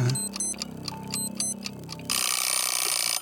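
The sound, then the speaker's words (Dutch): A quiz timer clock ticks in a quick, steady rhythm with bright chiming tones, then gives way to a loud, sustained buzzing alarm-like burst at the end. “Komt dat klokje? Klokje doet ja.”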